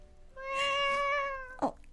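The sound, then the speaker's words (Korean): A single drawn-out cat meow in a cafe, clear, rising and holding steady for about a second before fading, followed by a brief soft thump. No talking. “고양이 소리가 들리네.”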